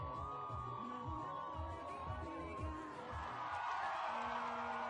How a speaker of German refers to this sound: Die Menschen jubeln, weil sie ihm glauben wollen, auch wenn er ihnen das Blaue vom Himmel verspricht.